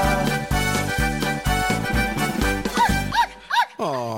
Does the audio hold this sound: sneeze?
no